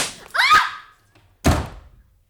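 gunshot

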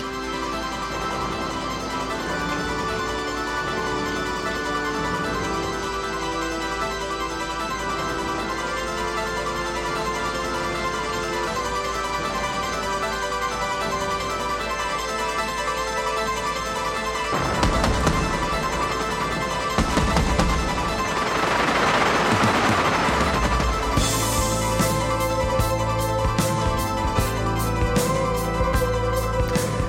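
rain

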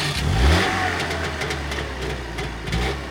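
car engine revving

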